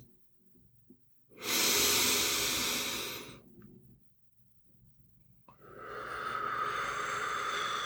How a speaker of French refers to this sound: Alors, quand j'inspire, je gonfle le ventre et quand j'expire, quand je souffle l'air, je rentre le ventre, ce qui permet de faire une respiration abdominale. Je le fais en direct et je t'en parle après.